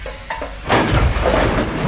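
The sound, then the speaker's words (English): A few faint clicks lead into a loud sci-fi pulse pistol shot. A heavy boom spreads into a sustained crackling roar as it hits and destroys a hard drive. No one speaks. “And then, for good measure, they took the pulse pistol out of its holster and shot the hard drive dead.”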